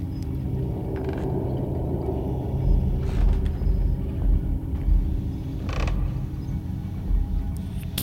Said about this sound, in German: Ach, dieses Knarzen macht mich wahnsinnig.